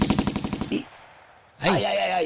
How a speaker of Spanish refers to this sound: Claro, porque esto es violencia y sexo. Y, y, y, violencia, ¿eh? y, tiros.